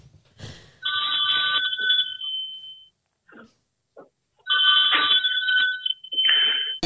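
telephone bell ringing

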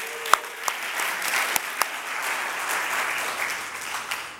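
audience applause

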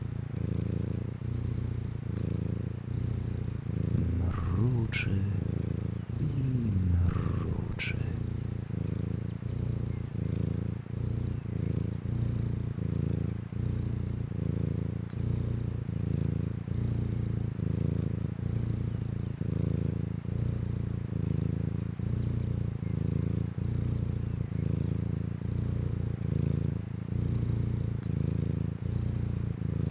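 cat purring

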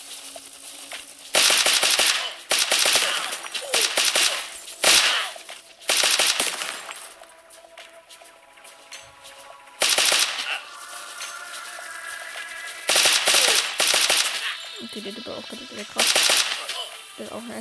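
video game gunfire

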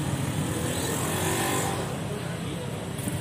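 motorcycle engine revving

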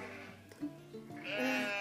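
sheep bleating

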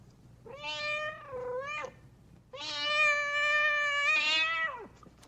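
cat meowing

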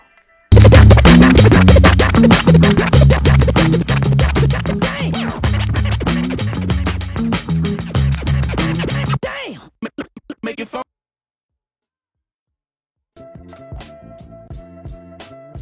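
DJ turntable scratching

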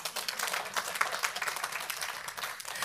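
audience clapping

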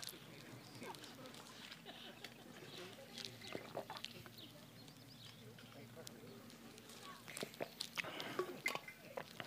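person drinking water

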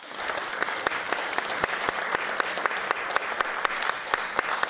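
standing ovation applause

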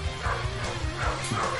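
dog barking

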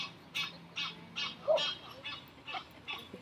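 duck quacking

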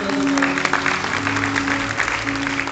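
audience applauding

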